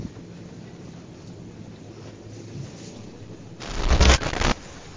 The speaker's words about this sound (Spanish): Pues llueve. Llueve muchísimo.